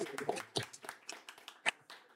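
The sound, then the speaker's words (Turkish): An audience claps together for the event's organizer in a steady, scattered patter of overlapping hand claps lasting a couple of seconds, fairly soft overall with a few sharper claps standing out. “Organizasyonu yaptığı için kendisini bir alkışlamak istiyorum.”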